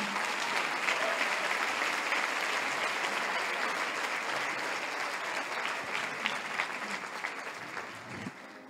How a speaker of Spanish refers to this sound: En el nombre de Jesús. Amén. Amén. Un aplauso.